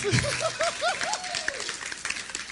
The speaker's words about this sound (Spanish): Dale un fuerte aplauso